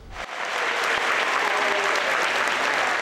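A crowd claps steadily, sustained applause from many hands that rises within the first moment and holds at an even, fairly loud level, with faint voices mixed underneath, celebrating the mark of 5,000 people vaccinated during the morning of a vaccination campaign.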